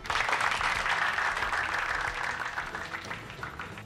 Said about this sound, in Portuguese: E na falta de um, hoje temos dois convidados. Palmas eletrônicas para eles.